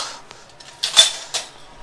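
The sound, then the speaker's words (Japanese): The metal lid of a pot for boiling water clinks and clatters as it's handled, with a bright ringing knock followed by a second lighter clink, no voices. “あれお湯沸かす鍋の蓋がないぞ蓋がないあった”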